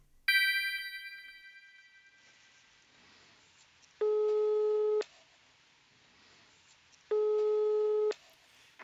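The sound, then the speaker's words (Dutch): A bright chime opens, then the steady buzzing ringback tone of an outgoing phone call placed on the show Planeet Buurman sounds twice, each one-second beep separated by a few seconds of quiet, clear and fairly loud, with no talking. “Vanuit mijn satelliet kan ik met ze bellen.”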